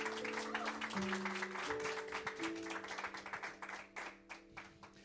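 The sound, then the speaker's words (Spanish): A church audience claps for the Heavenly Father during a morning sermon, in dense, sustained applause, the rapid hand claps blending into a steady wash that thins into scattered claps toward the end, with sustained musical tones playing underneath. “Alguien le da un aplauso a ese Padre Celestial.”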